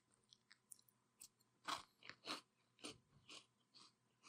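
Loud crunching as Cap'n Crunch Peanut Butter Crunch cereal is bitten and chewed, a first bite, a series of sharp irregular crunches with quick gaps between them, no talking.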